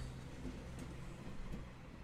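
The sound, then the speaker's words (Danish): Steady low rumble of a moving passenger train running on rails, a continuous even roar with faint rattles and squeaks on top and no voices. “Han sidder og kigger ud af vinduet på landskabet, der suser forbi og vugger frem og tilbage i takt med togets bevægelser.”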